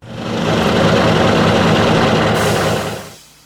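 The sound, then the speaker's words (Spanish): A heavy truck engine, in an advert for Chevron Delo 400 motor oil, runs steadily, a deep low rumble with a rough, throbbing texture, loud throughout before dropping away abruptly near the end. “Velo 400 protege tu motor en las condiciones más extremas. Piensa en lo mejor para tu camión.”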